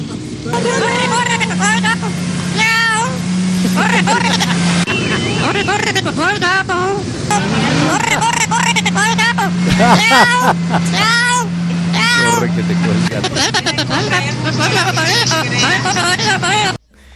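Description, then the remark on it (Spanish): A parrot squawks an alert call again and again, loud and harsh, as police agents seize birds that were about to be sold. A steady low motor drone and a busy babble of voices run underneath. “Vamos a escuchar un un poco el mensaje de alerta que dio este loro.”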